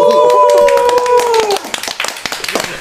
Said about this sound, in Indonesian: Wuh, tepuk tangan dong.